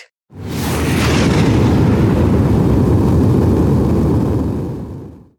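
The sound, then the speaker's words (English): A space shuttle launch rumble, a loud, deep, roaring blast that starts abruptly, holds steady and powerful for several seconds, then cuts off. No voices are heard. “Okay, then let's hop into a space shuttle and zoom out.”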